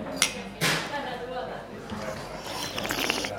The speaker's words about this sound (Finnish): Eiköhän kilistellä.